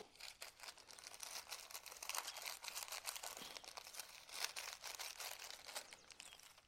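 Hands pack down and smooth the top of a crushed biscuit base, making a steady, gritty crunching and crinkling with irregular crackles throughout, fairly quiet and with no voices.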